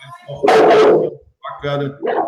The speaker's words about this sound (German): Ich hoffe, du überlebst das jetzt mit dem Hund. Ja, ja, ja das ist ein großer Hund. Ja, aber mal hoffen, dass du es überlebst.